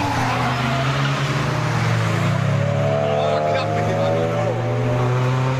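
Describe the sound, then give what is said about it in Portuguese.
A car engine roars at high revs throughout, loud, its droning pitch climbing slightly as it accelerates hard: a Dodge speeding dangerously in a high-speed chase through Paris traffic. “E ele acelerava perigosamente.”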